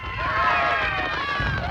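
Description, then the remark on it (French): A panicked crowd running in all directions on a forum as fine ash falls, with many overlapping high-pitched screams and shouts over a low rumble of hurried footsteps, loud and continuous throughout. “Les gens commencent à crier et à courir dans toutes les directions.”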